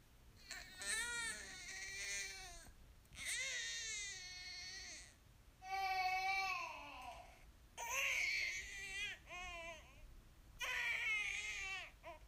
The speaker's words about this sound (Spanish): mientras más escuchen al bebé llorando